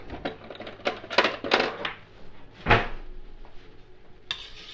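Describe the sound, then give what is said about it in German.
A cooking spoon clatters against a pan as butter is spread in it, in a quick, irregular run of sharp metallic clanks, ending with one heavier knock and a faint rattle, with no talking. “einen Kochlöffel.”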